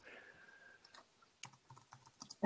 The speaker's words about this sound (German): Ich höre es tippen, ich hör's tippen.